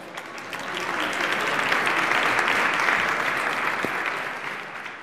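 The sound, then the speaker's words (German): An audience claps steadily for about five seconds, a dense wash of many hands that swells in at the start and holds at a fairly loud, even level, with no talking over it; applause as a volunteer is called up onto the stage. “Wer kommt zu mir hier nach vorne auf die Bühne? Applaus!”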